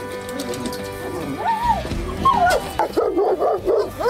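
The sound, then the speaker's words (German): Several livestock guardian dogs that guard a flock of sheep bark at a visitor, mixing sharp yips and whiny, rising howl-like calls, with a rapid burst of excited barking toward the end. “Du, aber jetzt wird das Prinzip relativ gut klar, weil mich bellen die an und bei dir sind die lieb, ne?”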